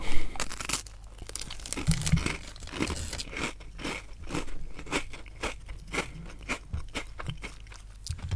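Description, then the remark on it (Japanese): Crisp crunching and chewing of a Marie biscuit, with repeated dry crackly bites in a steady rhythm, heard on its own with no talking. “唐突に始まる咀嚼音 ASMR うん美味しいねこれ美味しいよね。”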